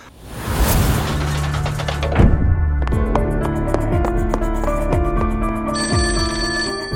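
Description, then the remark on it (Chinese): A telephone rings as a phone call is placed, with bright, repeating electronic tones over a busy musical backing, interrupted partway by a brief whooshing boom. The ringing continues steadily and fairly loud, with no one speaking. “他就打电话，嗯，打 呃 说喂，是这个 神探阿乐吗？”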